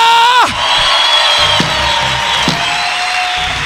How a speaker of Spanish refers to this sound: a que no le dé un aplauso a Shaddai. Aleluya.